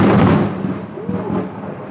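A loud thunderclap from a lightning strike cracks and rumbles, then gradually fades over a couple of seconds, with a faint voice audible beneath the dying rumble.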